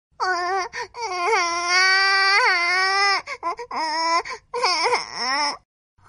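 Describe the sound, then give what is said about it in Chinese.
A baby lying in a cradle cries loudly and continuously with strained, high-pitched wails, breaking into shorter sobbing bursts near the end before falling silent; it is uncomfortable after soiling its diaper. No one speaks. “妈妈，小宝宝怎么又哭了？”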